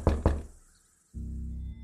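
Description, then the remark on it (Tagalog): Two quick, heavy knocks on a door, a moment of silence, then a steady low droning hum that holds until the end. “Kasabay niyon ay ang sunod-sunod na mga pagkatok sa pinto.”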